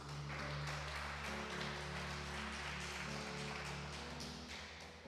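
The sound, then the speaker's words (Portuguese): A church audience breaks into sustained applause for Christ Jesus, dense clapping for several seconds, with a steady low musical drone underneath and no talking. “Pode dar uma salva de palmas a Cristo Jesus?”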